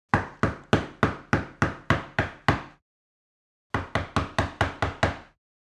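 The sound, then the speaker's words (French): Loud knocking on a bedroom door: a run of nine sharp, evenly spaced raps, a pause of about a second, then six more in the same steady rhythm. Clear, with no voices. “on frappa bruyamment à la porte de la chambre.”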